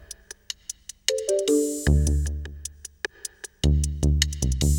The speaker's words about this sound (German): Früh um sieben wirst du durch Smartphone geweckt